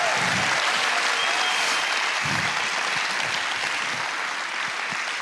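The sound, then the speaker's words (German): Sustained applause from a large audience fills the whole stretch, a dense, steady wash of clapping hands that stays loud and even throughout, with no voices standing out. “mutig vorwärts gehen, das ist nochmal euer Applaus.”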